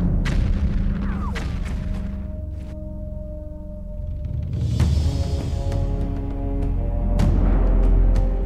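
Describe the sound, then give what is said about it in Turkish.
Repeated gunshots ring out in quick, irregular succession as Bediüzzaman fires continuously at the enemy while four people keep reloading the guns. Sharp cracks sound over a loud, rumbling battle din with heavy booms, no voices heard. “Dört kişi sürekli silahları doldurmakta, Bediüzzaman da düşmana ateş yağdırmaktadır.”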